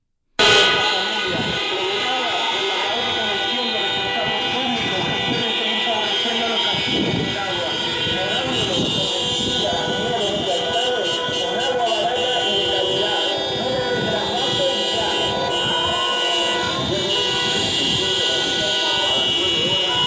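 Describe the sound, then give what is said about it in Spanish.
A dense, continuous blare of many car horns honking at once from a protest vehicle caravan on the Avenida Marítima in Santa Cruz de La Palma, sustained and loud throughout, with overlapping tones and a steady wash of crowd or traffic noise beneath. “Ha llegado la caravana mm, de vehículos eh, que, se manifiestan en, eh, en, la jornada de hoy por el túnel de trasvase ya y eh, han colapsado la principal arteria”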